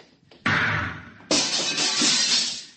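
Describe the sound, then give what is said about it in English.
Two sudden, loud blasts about a second apart, each erupting into a harsh, sustained hiss of crackling noise, like an energy weapon shooting open the lock on a control room door. No voices. “I'll have to blast the lock.”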